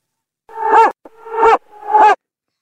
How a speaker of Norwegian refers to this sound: Altså, jeg må jo si meg veldig enig i dere. Altså, det, er, det er veldig rart. Altså, da høres jo hunder som bjeffer ut nesten likt når de i forlengs og baklengs.